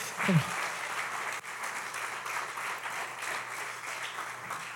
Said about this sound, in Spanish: Vamos a darles todo un fuerte aplauso a esta gente.